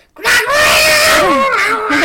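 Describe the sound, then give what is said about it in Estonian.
A loud, shrill vocal screech held for about two seconds, a person alone imitating the piercing cry of a small goblin-like creature, with wavering pitch and a brief dip midway. “mingi ebamäärases uh -huh. keeles, ebamäärases selles nagu kriiskas ja niimoodi.”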